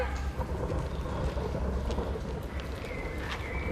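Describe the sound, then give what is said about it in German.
Deep, continuous rumbling of thunder rolls beneath a steady hiss of rain, a dense stormy wash of sound with no clear breaks and no voices. “Ja, ich habe ehrlich gesagt beim Schauen gar nicht gemerkt, das habe ich jetzt viel besser gehört, dass dann auch noch so gewittert, also donnert.”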